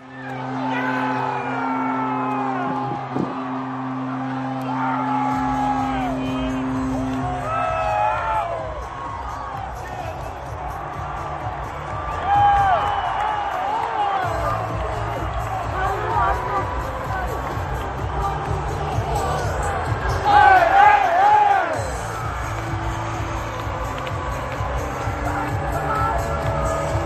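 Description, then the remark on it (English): A packed hockey arena, Ball Arena, erupts after the third goal of a playoff game, a huge crowd roaring and whooping continuously, with steady low horn-like tones early on and a louder surge of cheers near the end. “Here's the sounds from Ball Arena inside the can for goal number three, Taser's game winner from game two.”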